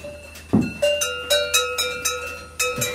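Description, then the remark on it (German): A cowbell clanks again and again in quick, uneven strokes, each metallic clang ringing on briefly, as a cow shakes her bell every few seconds to check it is still there. Fairly loud, with no voices. “Das ist Efi, eh die hat so ein äh, Problem mit ihrer Glocke. Jede 2-3 Sekunden checkt sie, ob die noch da ist”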